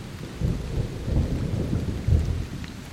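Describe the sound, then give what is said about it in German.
Deep, rolling thunder rumbles continuously with a heavier swell near the end, over a steady hiss of falling rain, on a pitch-dark night with lightning flashing across the sky. No voices, just the storm filling the space. “Sie hat keine Orientierung, außer wenn ein Blitz über dem Himmel zuckt und die Nacht erhellt.”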